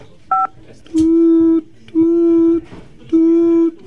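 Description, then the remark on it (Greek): A single short telephone keypad beep as the number 5 is pressed during a phone call, followed by three longer, buzzy line tones evenly spaced about a second apart, loud. “Πατήστε το 5. Ευχαριστώ. Μ' ακούτε? Ναι, ναι, κρατή, ναι, ναι, βάζω το 5.”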